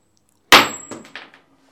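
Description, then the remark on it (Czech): A die is tossed onto a table: one sharp, bright clack, then three quicker, fainter bounces as it rattles to a stop. Nobody speaks. “A když padne pětka, začínáš ty a taky říkáš, máme o tom mluvit.”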